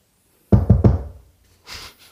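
Three quick, solid knocks on a door, loud, ringing out briefly before a soft rustling hiss follows.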